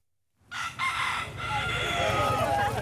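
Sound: chicken crowing and clucking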